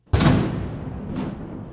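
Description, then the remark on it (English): A single ceremonial cannon at the Colorado State House fires a blank, booming out sharply to mark the start of Governor Jared Polis's second term at his inauguration, then rolls away in a long, rumbling echo that swells again briefly before fading, outdoors with no voices. “A cannon at the State House fired blanks to mark the start of Governor Polis's second term.”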